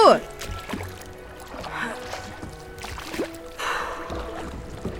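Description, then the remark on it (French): A small boat shaped like a giant wafer cake, steered by two ferrywomen, glides across water with soft, continuous sloshing and splashing, while a voice talks over it and faint tonal sounds hum in the background. “Regardez, on peut traverser en bateau.”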